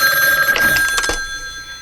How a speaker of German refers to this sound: Am nächsten Nachmittag klingelte in der Zentrale das Telefon. Telefon!